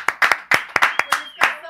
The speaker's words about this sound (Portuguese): Uma salva de palmas senhora.